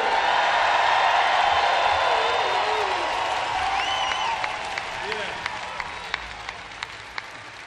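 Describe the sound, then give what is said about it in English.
A large concert crowd applauds and cheers loudly for the show's crew, with whistles rising over the roar, then the noise thins out until only scattered individual claps remain. “So let's hear it for the best crew on the planet.”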